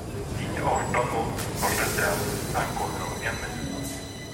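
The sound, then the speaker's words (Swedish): A small dog named Sippo barks in several short, sharp bursts spread across a few seconds, heard over a steady rumbling background noise like a train or subway car; in a suburb of southern Stockholm in winter 2022. “Inte skälla lilla Sippo.”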